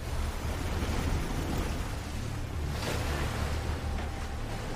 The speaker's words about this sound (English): This is a clip from Bird Box where Sandra Bullock trying to cross a river blindfolded. Never underestimate the power of white moving water.